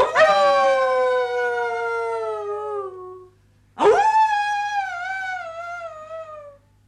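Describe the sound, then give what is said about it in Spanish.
Wolves howling in two long, drawn-out calls, each starting high and sliding slowly downward, with a short gap between them; loud and with no one speaking. “Estaban aterrorizadas las muchachas, porque en cuanto al hechicero no le gustaba alguna, abría la puerta del jardín y la echaba afuera, a la montaña boscosa, llena de osos y de lobos.”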